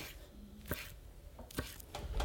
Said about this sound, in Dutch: Ik pak er gewoon een keukenmesje bij en dan uh, snij ik ze gewoon tot